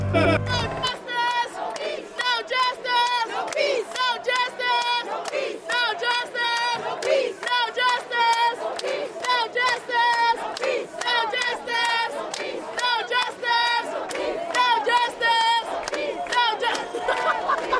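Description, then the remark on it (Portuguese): A large crowd in Portugal shouts chants that Portugal is not racist, in rhythmic bursts, many voices rising and falling together in a steady, loud cadence throughout. “não queria ter mais gente que nós, mas eu peço que virem as câmaras para lá, para ver onde é que há mais gente, se ontem, se hoje, se nos aliados, se na praça do município, sempre haverá mais gente a gritar que Portugal não é racista.”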